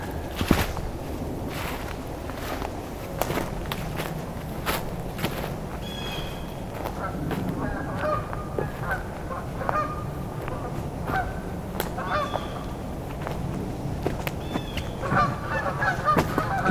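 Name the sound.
canada geese honking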